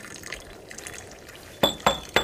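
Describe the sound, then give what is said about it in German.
Hot cocoa is poured with a soft, steady trickling, followed by three sharp clinks of cups. No one speaks. “Ich gieße uns mal einen heißen Kakao ein und dann heißt es Füße hochlegen und entspannen.”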